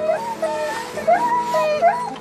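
A dog whimpers in a run of high, wavering whines that rise and fall, several short cries close by over a low background hum, with no talking.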